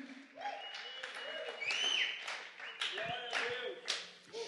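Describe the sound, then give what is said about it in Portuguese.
A crowd applauds the Lord Jesus Christ steadily for several seconds, a dense wash of clapping with scattered cheers and whoops rising over it, the noise swelling and dipping without a pause. “Aplauda ao Senhor Jesus Cristo.”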